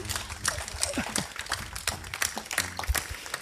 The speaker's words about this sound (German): Danke für, danke für, den, danke für den Applaus.